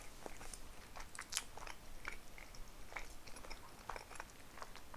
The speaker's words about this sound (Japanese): ああ今ほっと一段落でお昼を食べる